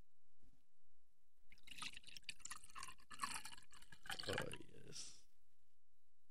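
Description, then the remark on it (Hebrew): A drink is poured from a bottle into a glass, a few seconds of steady gurgling and splashing liquid that trails off, with no one talking. “אני אסגור את הבקבוק. הופה. אוקיי. לחיים”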